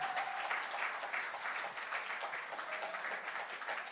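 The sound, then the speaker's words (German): An audience applauds steadily for the people who started building the setup at 5:30 that morning, a dense wash of many hands clapping at an even level throughout, with a faint tonal whistle-like tone briefly showing through. “Komm, lass uns mal einen Applaus geben.”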